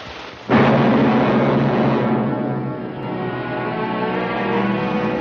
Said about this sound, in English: They spark. That's the lightning. They kiss. Thunder.